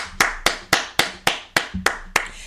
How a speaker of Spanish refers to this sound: Me encantó. Fuerte el aplauso.